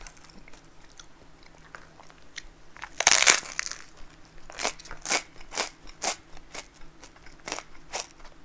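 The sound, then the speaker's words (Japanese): A sharp, loud crunch of biting into crisp toasted bread topped with freshly opened Gohan desu yo seaweed paste, followed by a steady series of softer rhythmic crunches as it is chewed, with no talking. “パンを焼いて食べながら喋る雑談”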